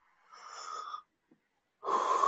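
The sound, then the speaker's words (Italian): A drawn-out, breathy voiced yawn, a brief pause, then a second yawn begins, loud and airy with no words spoken. “Eh, ti fa venire lo sbadiglio la Suzuki quando pensi alla Suzuki.”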